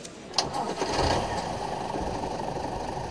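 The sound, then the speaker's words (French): A blue bus engine turns over at Le Bourget airport with a brief sharp catch, then settles into a steady, loud rumbling idle that continues without any talking. “Un quart nous attend. Il est bleu.”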